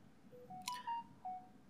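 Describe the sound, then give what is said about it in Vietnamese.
A phone notification rings out as a quick run of short electronic tones stepping up in pitch, with a soft click in the middle and a final beep, fairly quiet and with no talking. “sorry mọi người vì tiếng điện thoại nha”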